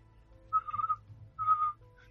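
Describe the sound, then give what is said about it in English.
Two short whistled chirps, each about half a second long and separated by a brief pause: a person whistling to mimic the squeaky chirp of a small creature inside a backpack, over a low background hum. “You hear a chirp come from inside the backpack on Kari's back, trying to emulate that.”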